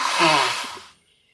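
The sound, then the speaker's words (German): A single sneeze bursts out, a loud, breathy hiss of air lasting under a second before cutting off into silence. “Gesundheit.”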